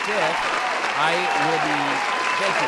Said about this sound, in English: Thank you. Thank you. The applause is, is, is incredible. It's incredible.